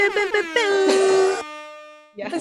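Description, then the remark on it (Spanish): A voice mimics the whine of jet airplane turbines, a loud, rising then steady droning hum lasting over a second before trailing off, followed by a brief burst of talking. “turbinar de avión, como que no sé qué sonido hacer”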